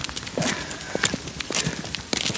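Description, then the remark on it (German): A donkey trots away on hard ground, its hooves and accompanying footsteps landing in a steady, evenly spaced rhythm, moderately loud, with no voices. “joggt gerade ganz ja. weg. Ich muss mal kurz ja, hinterherkommen.”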